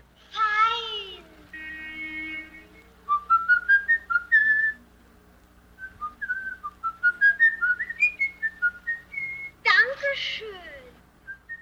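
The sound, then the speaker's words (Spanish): Someone whistles In the Hall of the Mountain King, a piece from Opus 23 by Edvard Grieg, as the silhouette of a killer in a film. It is a short melody of quick, clear rising and falling notes in a steady rhythm. Brief harmonic cries come before the tune and cut in just after it ends. “Los detalles sonoros aquí son los niños cantando y la silueta del asesino silbando la melodía en el Salón del Rey de la Montaña, que es un fragmento del Opus 23 compuesto por Edward Grieg.”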